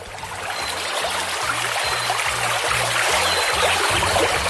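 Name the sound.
running water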